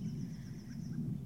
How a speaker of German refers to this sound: Oh, da ist die erste Meise. Und sie ist spät dran, wie immer. Sie schimpft auch erstmal, muss sich schütteln